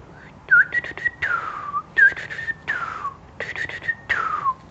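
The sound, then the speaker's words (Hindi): A whistle is blown by Alexander a little way from the palace, in a repeating tune of short chirpy notes and long downward-sliding tones, loud, with no voices. “जैसे अंगू सीटी की आवाज़ सुनी खरगोश तो पुदक पुदक के पुदक पुदक के भाग गया”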